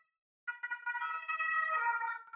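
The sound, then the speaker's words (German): A fire engine siren wails by, a loud, steady harmonic tone with a slight wavering pitch that dips toward the end as the vehicle passes, with no voices over it. “Warte, dann fährt mal die Feuerwehr an uns vorbei.”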